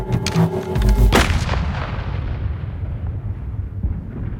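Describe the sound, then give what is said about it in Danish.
A single loud gunshot cracks out through the trees, followed by a deep booming echo that rolls away and fades over several seconds. “Et skud brager ind gennem træerne.”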